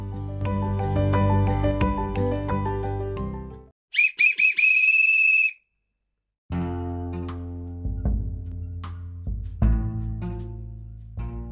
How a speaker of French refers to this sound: l'arbitre vient de donner le coup de sifflet. Le match commence maintenant.